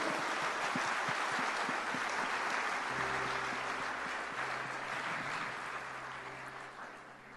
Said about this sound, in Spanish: The big, give him a hand. Dele un aplauso.